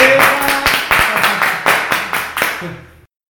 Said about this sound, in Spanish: Fantástico, fantástico, fantástico. Un aplauso, loco, eh.